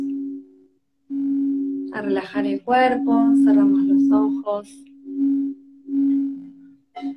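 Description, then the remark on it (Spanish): A steady, pure humming tone from singing bowls rings through the whole stretch during a guided meditation, swelling and fading in slow waves, while a calm voice speaks softly over it partway through. “Vamos a conectar con la respiración, con el sonido de los cuencos, la energía del cuerpo de cuarzo que nos lleva hacia planos superiores y eleva nuestra frecuencia vibratoria.”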